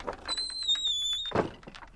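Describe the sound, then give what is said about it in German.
A man opens the door of a nobleman's estate at night; it swings open with a thin, high, drawn-out squeal of its hinges lasting about a second, followed by a soft thud, with no voices. “Er öffnet die Tür.”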